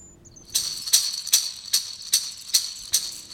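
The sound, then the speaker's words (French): A seed-filled rattle shaken in a steady rhythm, about eight crisp, hissing bursts of rattling grains in a row, fairly loud, with no voices. “Quel son entendez-vous Celui du hochet De quelle matière sont ces grains”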